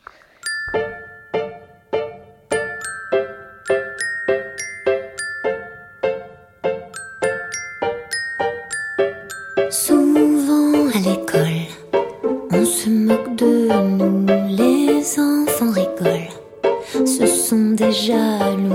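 A pop song plays, opening with a bright, chiming bell-like melody of evenly spaced notes before a fuller band and a singing voice come in for the second half.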